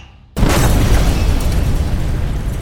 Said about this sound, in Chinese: 爆炸声再一次响起，游轮又剧烈的晃动起来。